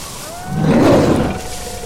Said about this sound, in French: Oh, j'entends un grognement. Pire, un rugissement.